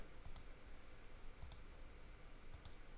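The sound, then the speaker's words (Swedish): A few sharp computer mouse clicks sound, spaced irregularly in small pairs over a quiet background hum, with no talking. “När ja, jag klickar.”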